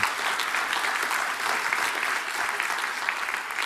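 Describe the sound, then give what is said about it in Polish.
Sustained applause from an audience for the Lord Jesus and His victory, a dense, steady wash of many hands clapping at an even loudness throughout, with no individual claps standing out and no voices clearly audible. “Oklaski dla Pana Jezusa za Jego zwycięstwo.”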